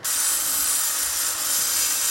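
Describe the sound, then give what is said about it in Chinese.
A craftsman grinds and welds metal at an old trishaw-making and repair shop in George Town, Penang, Malaysia: a continuous, harsh, bright hiss that holds steady for about two seconds, dipping briefly midway, with no voices. “穿着短裤短袖，专注打磨焊接金属的职人”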